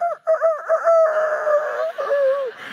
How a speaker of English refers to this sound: He sent me a little rooster crow thing.